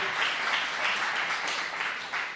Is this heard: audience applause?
yes